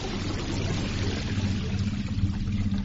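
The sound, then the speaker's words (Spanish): Deep underwater ocean ambience: a steady, enveloping wash of muffled water noise over a low droning rumble, continuous and even throughout, with no voices. “Tal como estáis escuchando de fondo, ahora mismo, en el capítulo de esta noche de Nueva Dimensión Premium, nos vamos a sumergir a lo más profundo del océano.”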